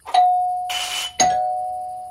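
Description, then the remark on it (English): A doorbell rung by a trick-or-treater at the door on Halloween rings twice, each strike a bright chime whose tone hangs and fades, with a short rattly burst of noise between the two rings and no voices. “But the best part, of course, is ringing doorbells.”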